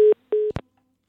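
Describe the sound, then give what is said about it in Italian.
A telephone busy tone after a caller's mobile phone line drops during a radio phone-in: two steady, mid-pitched beeps separated by a brief pause, followed by a short sharp click, then silence. “È caduta la linea.”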